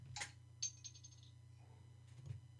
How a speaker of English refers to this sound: Where'd that come from? Over here, that's my phone. See, I'm a very popular guy.